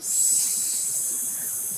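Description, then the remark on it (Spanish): A steady, breathy hiss of several people exhaling together during a breathing exercise, airy and high-pitched, holding at an even level for under two seconds with no talking. “Saquen su aire.”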